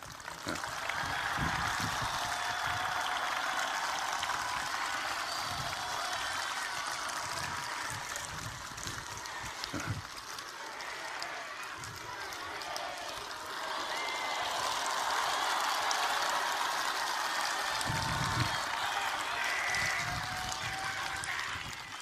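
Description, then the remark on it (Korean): A crowd applauds steadily for more than twenty seconds, a dense, even wash of clapping that stays loud throughout, with a few shouts or cheers rising out of it. “이 박수는 문재인 대통령님한테 보내십시오.”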